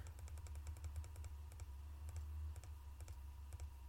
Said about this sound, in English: It's training up shadow magic. Just clicking a button. Don't have to do anything else